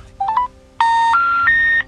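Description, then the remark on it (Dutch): Telephone line tones on a call to a number that is not in use: three quick rising beeps, then three longer, steady electronic tones stepping upward in pitch, clear with no one speaking. “Ik ga nog één telefoontje proberen.”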